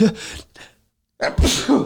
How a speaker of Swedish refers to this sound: Wow, vilken nysning. Jag har inte corona, jag är allergisk.